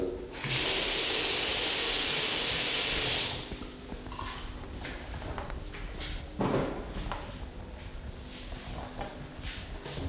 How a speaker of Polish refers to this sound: Teraz proszę Państwa zejdę i na przykład będę mógł wejść do łazienki puścić wodę w umywalce.